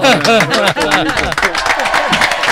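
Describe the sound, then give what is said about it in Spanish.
A loud audience bursts into sustained applause, dense clapping mixed with cheering and shouting voices, filling the space for a couple of seconds without pause. “Aplauso fuerte.”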